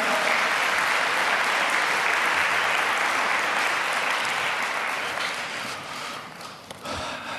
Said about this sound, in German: Super, vielen Dank an die Kandidaten. Applaus für die beiden.